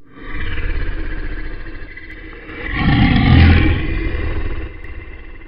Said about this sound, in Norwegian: Han kan høre løven knurre der inne.